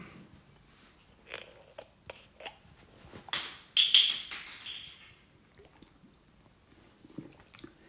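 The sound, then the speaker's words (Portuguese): Someone takes a sip of water: soft wet mouth clicks and a brief slurp, followed by a couple of swallowing gulps and small smacks, with no talking. “desculpa, deixa eu beber um pouquinho de água.”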